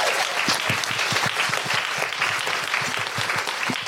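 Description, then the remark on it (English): A live show audience applauds the lighting booth operator steadily, many hands clapping in a dense, even wash of sharp claps that holds at a fairly loud level throughout, with no one speaking over it. “A big round of applause for Amy in the lighting booth.”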